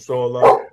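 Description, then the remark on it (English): A single short dog bark rings out, overlapping a brief bit of a person's speech and a laugh. “Pardon, pardon the dogs in the background.”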